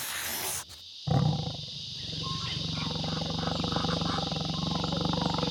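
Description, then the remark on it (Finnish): A brief burst of hiss gives way to a tiger's deep, rumbling roar that starts abruptly and stays loud, growling on steadily for several seconds. “Tiikeri oli metsästämässä. Se etsi saalista itsellensä”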